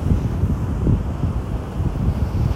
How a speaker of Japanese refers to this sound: 今日は、えー、堤防に来ています波が結構高いですね